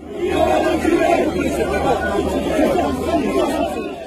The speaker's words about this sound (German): Bei einem spontanen Bad in der Menge wurde Macron ausgebuht.